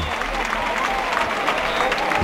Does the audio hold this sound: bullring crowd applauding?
yes